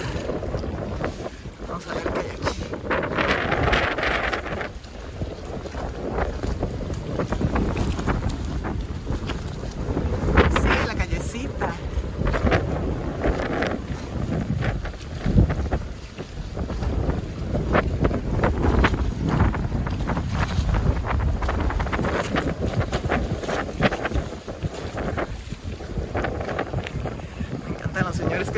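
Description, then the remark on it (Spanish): Strong wind, which has picked up, buffets the microphone over a choppy sea from a moving boat, with a constant loud roar and low rumble, waves slapping the hull, and voices faintly talking underneath. “Ya reció el viento.”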